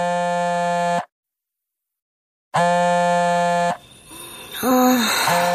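A telephone rings at night with two loud, buzzy, steady bursts about a second long, separated by a pause of silence, followed by a murky, fluctuating background with a brief rising tonal sound.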